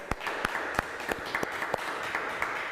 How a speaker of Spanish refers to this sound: Un fuerte aplauso, Ecuador.